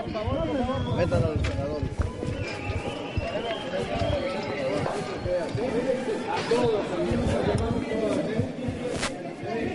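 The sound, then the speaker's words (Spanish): A large crowd booing and shouting at politicians, many raised voices overlapping into a loud, continuous roar that stays steady for the whole stretch, with scattered sharper yells and thumps. “Vamos a escuchar cómo, cómo lo saludaron, como si fuera un estadio de fútbol, una cosa así ocurrió hace un rato.”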